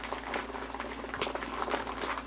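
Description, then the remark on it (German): Steady crackling and rustling of a bag or paper being crinkled to imitate a campfire for a homemade audio play, with dense irregular pops running throughout and a faint low hum underneath. “Wahrscheinlich habe ich irgendwie eine Tüte oder ein Papier geknistert und ein Hörspiel gemacht.”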